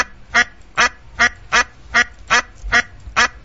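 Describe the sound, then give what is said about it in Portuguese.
A live duck quacks repeatedly in a steady rhythm, about eight loud, nasal calls evenly spaced, with no one speaking. “Tá, ele é o pato vivo, beleza, vamos lá.”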